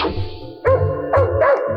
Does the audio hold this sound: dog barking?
yes